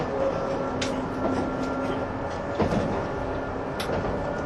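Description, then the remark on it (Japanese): The Odoriko 106 limited express electric train to Tokyo running, ten cars long: a steady, broad rumbling roar with a faint sustained hum and a few soft clunks and rattles scattered through, with no voices. “この電車は特急電車です”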